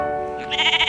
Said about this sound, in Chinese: 乖乖，这是羊咩咩的叫声。